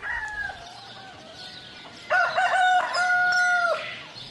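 Roosters crow now and then at night before dawn, one after another, the first call fading before a louder crow takes over with strong harmonic, drawn-out notes. No one speaks.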